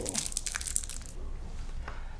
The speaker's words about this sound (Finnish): tässä suklaasyönnin välissä, jota harrastamme tämän ohjelman aikana.